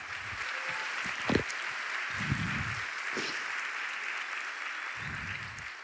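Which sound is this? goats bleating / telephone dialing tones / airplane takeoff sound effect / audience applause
audience applause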